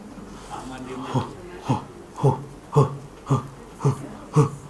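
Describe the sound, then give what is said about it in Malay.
A voice makes a steady series of about seven short, breathy 'hu' bursts, evenly spaced roughly half a second apart, moderately loud, imitating the rhythmic forceful breathing of the 'zikir nafas' breath chant. “mana datang zikir hu, hu ni ni dah bagi zikir nafas”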